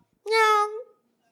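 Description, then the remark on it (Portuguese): A single drawn-out meow, voiced by a person imitating a cat, loud, held for just over half a second before trailing off, with silence around it. “Mas o rugido que eu sinto dele é de um gato.”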